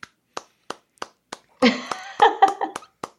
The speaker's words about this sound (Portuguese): Ó, oh, aplausos aqui.